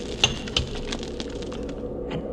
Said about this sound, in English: ice axe. That was an axe. No other sound in the world like it. it fell from up above the overhang there.